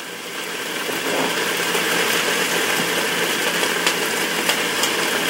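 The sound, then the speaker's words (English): Vegetables sizzle steadily in a hot pot, steaming and browning a little on the bottom, a dense hiss that swells slightly after the first second, sprinkled with a few sharp crackles and pops. No one speaks. “You can probably hear it's browning a little bit now on the bottom.”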